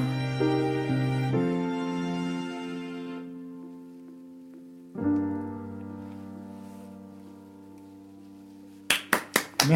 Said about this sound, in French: C'est la note finale par Léo Agapitos au clavier